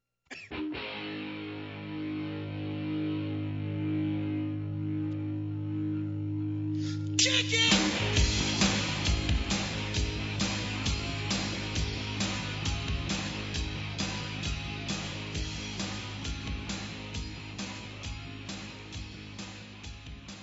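A loud punk rock track opens with a sustained, droning distorted guitar chord, then after several seconds the full band crashes in with pounding drums and a dense, driving wall of sound.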